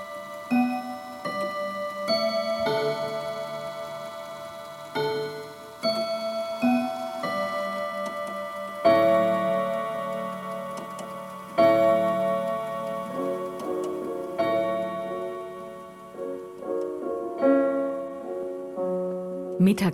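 A grandfather clock in the large dining room of a villa in Hertenstein strikes for lunch, a slow chime melody, its bright bell tones ringing out one after another and overlapping as each note decays, with a faint steady ticking underneath.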